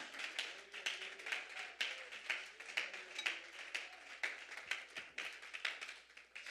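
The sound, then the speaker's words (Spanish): A crowd of people clapping steadily together, a dense, continuous patter of hand claps that holds at an even level for several seconds with no voices over it. The audience applauds in praise of God during a sermon. “Alguien puede levantar ese aplauso en esta hora para Él.”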